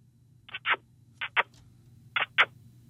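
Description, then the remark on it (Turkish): Three pairs of short, squeaky smacking sounds, each a quick double burst, made by a person kissing the inside of their palm to try to make a bird sound, squeaking like a stuck zipper instead, fairly loud over a low steady hum. “Yok abi bu bildiğin ee, fermuar sesi.”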